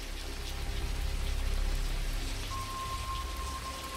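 Heavy rain pours down in a dense, steady hiss with a low rumbling undertone, and a thin high tone joins faintly partway through. No one speaks.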